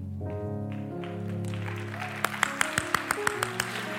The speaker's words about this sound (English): Don't clap. I don't care.